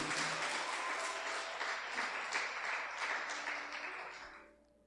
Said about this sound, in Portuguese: Pode aplaudir.